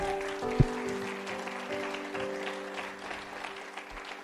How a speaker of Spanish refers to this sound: Dan aplauso fuerte a nuestro Dios.